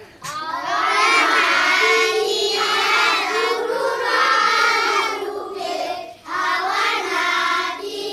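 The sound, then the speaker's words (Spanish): More than 40 primary school children at a primary school in Ansirabé, Madagascar, chanting together in loud chorus, their high voices rising and falling in rhythmic phrases with a brief pause before the chant resumes. “Esto está grabado en una escuela de primaria de Ansirabé. Más de 40 niños de primaria a coro.”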